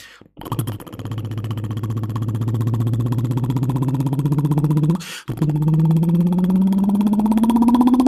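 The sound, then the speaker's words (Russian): A voice imitates a motorcycle with buzzing lips, the pitch climbing steadily like an engine revving up, a brief pause for a gear change, then rising again, loud. “А мотоцикл это...”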